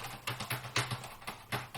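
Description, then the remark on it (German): Quick, irregular bursts of soft keystrokes from a non-mechanical keyboard resting on a lap, quiet, with a faint steady hum underneath and no voices. “Ja, das ist das ist keine mechanische. Also es gibt bei dem mechanischen dann auch nochmal Unterschiede.”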